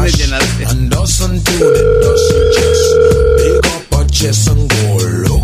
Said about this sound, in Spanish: Oye, contesta el teléfono, hombre.